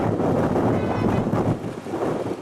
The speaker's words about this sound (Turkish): Bursa'da da kuvvetli lodos etkiledi. Vatandaş rüzgar sırasında yolda yürümekte dahi zorlandı. Hızı zaman zaman saatte 70 kilometrenin bile üzerine çıkan rüzgar nedeniyle şehirde adeta yer yerinden oynadı.